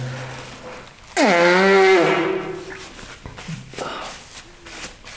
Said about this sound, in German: Warte, muss man Nase putzen.